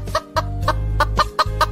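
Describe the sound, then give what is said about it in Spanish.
A hen clucks in a quick, steady series of about six short, throaty notes over a constant low hum, clear with no voices. “La gallina se levantó y enseñó un huevo que acababa de poner.”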